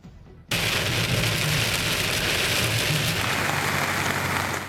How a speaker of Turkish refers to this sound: Beklenen yağmur geldi ama batıda pek çok noktada faydadan çok zarara yol açtı. Ege bölgesinde birden düşen aşırı yağışlar sel oldu aktı.